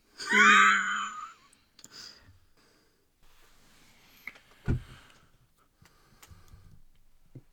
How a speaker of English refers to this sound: There's a cat back there.